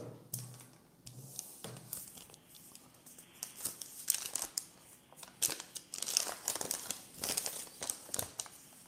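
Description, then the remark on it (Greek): Papery crinkling and rustling, with irregular bursts of crumpling and sharp crackles as sheets are handled and shuffled, continuing steadily without any talking. “Όλα τα χαρτιά μου αυτά λένε. Έτσι ε, τραβάω.”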